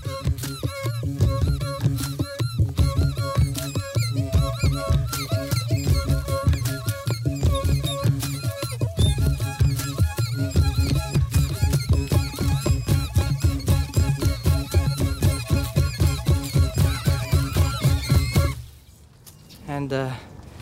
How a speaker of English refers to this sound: As an additional note, I would like to say that moving the trees, creating vibrations, actually makes the circulation uh, better. So the tree is enjoying people making music with it.